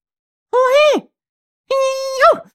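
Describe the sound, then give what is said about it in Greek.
A voice imitates a stifled sneeze that is held back and swallowed: two strained vocal bursts, each about half a second, ending in a pinched downward squeeze, separated by a short pause. “Αυτό το φτερνίσμα που οριακά το καταπίνουν, το πνίγουνε το φτερνίσμα και επειδή το κάνουν αυτό και δεν φεύγει το φτερνίσμα μόνο το τύπου πάρ το όλο έφυγες, χρειάζονται 15 φτερνίσματα για να βγάλουν αυτό που άλλος έβγαλε σε ένα.”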